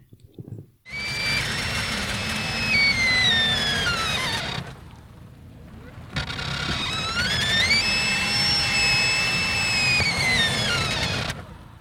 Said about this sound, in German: Also für mich klingt das ehrlich gesagt äh, nicht so, wie ich mir jetzt Eis vorgestellt hätte, sondern eher wie eine ganz fiese, knarzende, quietschende, schlecht geölte alte Tür. Ja, es sind äh, abstruse Geräusche.